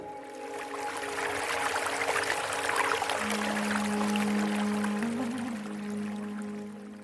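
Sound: shower water running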